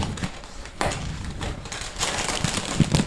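Close-up rustling and crinkling as a box holding a bag of dry pet food is handled and opened into the microphone, with a few sharper bursts of noise amid continuous scratchy handling sounds.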